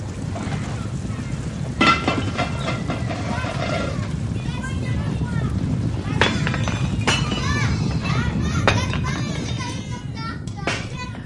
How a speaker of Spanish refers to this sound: No se preocupen, hijos. No, no pasa nada. Está temblando, pero no pasa nada.